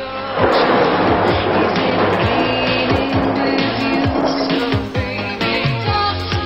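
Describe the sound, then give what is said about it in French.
A loud, dense storm sound effect: rolling thunder and rushing noise over low droning tones, sustained throughout with no voices. “C'est l'histoire de Storm, une eau de toilette au nom orageux, qui par une nuit de tempête changea la règle du jeu.”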